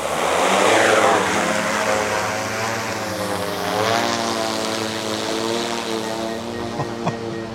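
A fire brigade drone's propellers whir up loudly as it lifts off from the forecourt of the fire station in Zug, rising about 10 meters, then settle into a steady, buzzing hover with shifting harmonic whine, continuous throughout.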